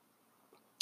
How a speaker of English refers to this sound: Take a little sip of water there.